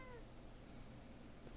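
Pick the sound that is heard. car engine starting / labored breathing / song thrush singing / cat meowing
cat meowing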